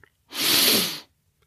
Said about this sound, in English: So I find closing my eyes and taking a deep sniff can help with this one.